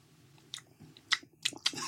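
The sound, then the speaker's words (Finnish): Wet lip smacking as someone tastes a cold, cola-like IKEA drink to release its aromas: about five short moist smacks in an uneven rhythm over a quiet low hum, with no talking. “Mä, mä, mähän maiskuttelen, koska se saa aromit niin kuin liikkeelle.”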